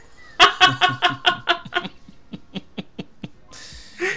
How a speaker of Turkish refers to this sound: Ben camım açık. Karga sesleriyle birlikte bu bölümde olacağım.